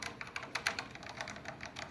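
Soft, quiet keystrokes on a mechanical keyboard with linear, non-tactile switches, a quieter switch type suited to office use. A quick, slightly irregular run of light clicks and taps, about a dozen strokes, with no voices.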